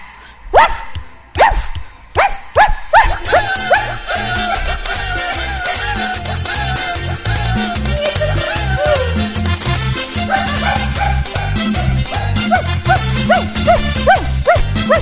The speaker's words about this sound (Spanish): el nuevo perrito de Radio